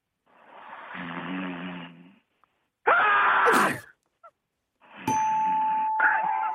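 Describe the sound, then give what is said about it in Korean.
A voice imitates loud snoring in the style of a water deer, with three rough, raspy bursts, the middle one harsher with a shrill squealing edge, like a water deer's call, separated by short silences. “고라니 코, 고는 스타일, 예. 네, 고라니 코 고는 스타일은요.”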